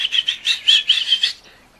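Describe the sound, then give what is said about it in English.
A small bird flutters past someone's head with a quick run of light, airy wingbeats, fairly clear, then the sound fades away within a couple of seconds. “Suddenly, something flew past his head.”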